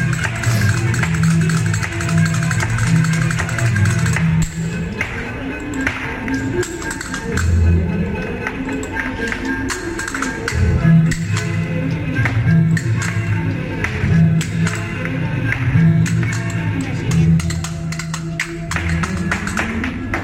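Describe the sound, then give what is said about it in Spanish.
Rapid, forceful flamenco heel stamping (taconeo) on a wooden board, a dense run of sharp percussive strikes over a steady low musical drone, loud throughout. “vaya taconeo y vaya brío”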